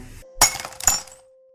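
A wine glass breaks, with two sharp, bright shattering crashes in quick succession, then a thin lingering ring and tinkling shards fading out. No one speaks.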